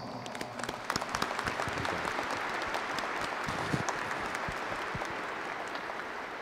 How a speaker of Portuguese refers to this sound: Dom Paulo, boas-vindas ao Senhor, à sua diocese nós nos acolhemos com muita alegria aqui na casa de Nossa Senhora Aparecida com uma grande salva de palmas.